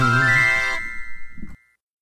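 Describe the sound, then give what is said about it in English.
A bright, ringing chime with sustained tonal harmonics, loud, sounding on its own and then decaying into a short fading ring before silence. “So grab a glass of wombat juice and allow me to introduce you to your new best friends right after the chime.”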